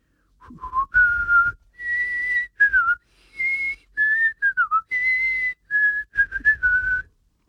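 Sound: person whistling a tune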